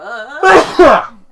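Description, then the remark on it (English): A loud, explosive sneeze from a dad in two sharp, forceful bursts into a microphone, with a brief harmonic vocal intake just before it. “That's one of a dad's sneeze.”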